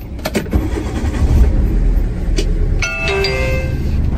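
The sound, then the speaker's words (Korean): During a driving test, a few sharp clicks sound, then a car engine starts and settles into a steady low rumble. Near the end a short series of electronic chime tones sounds over the idling engine. “5초 내에 엔진 시동을 거세요.”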